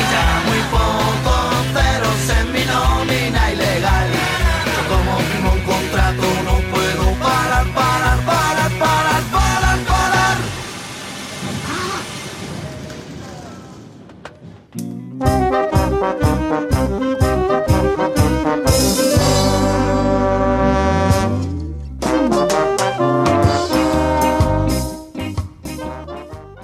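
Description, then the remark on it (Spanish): A loud pop-rock song plays with a steady driving drumbeat and full band, briefly thinning out around the middle before kicking back in at full volume. “Nos encanta, tanto como nos sentimos identificados con esta canción”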